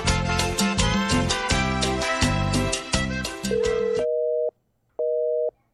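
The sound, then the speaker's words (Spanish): A telephone busy signal, heard because the person called is on another call, sounds two steady, mid-pitched tone bursts separated by a short silence, following a few seconds of loud, busy music with strong beats. “Está en otra llamada, cuates, no se puede.”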